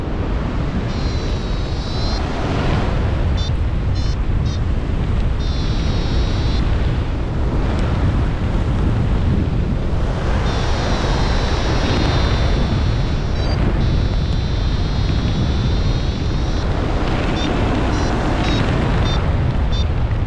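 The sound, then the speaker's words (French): Loud, steady wind with a slight northerly tendency buffets the microphone outdoors by a lagoon near sunset, a continuous low roar with gusty surges throughout, and faint high chirping sounds poke through now and then. “Ouais, légère tendance, légère tendance nord sur, sur le vent”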